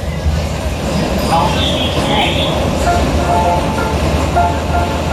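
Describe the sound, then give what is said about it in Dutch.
Steady, loud rumble of a metro train in motion in Berlin, with a continuous low drone and brief higher squeals, plus faint, indistinct voices in the background. “Al is het maar hoe een straat klinkt in Italië of hoe dat de metro klinkt in Berlijn of zo.”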